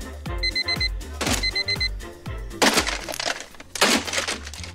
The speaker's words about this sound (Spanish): Hoy en día tanto relojes como nuestros teléfonos inteligentes se encargan de levantarnos diariamente con estos espantosos sonidos